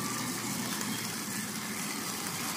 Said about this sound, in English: Anyway you are probably being completely distracted by the sound of diesel trucks and the sound of um, a waterfall.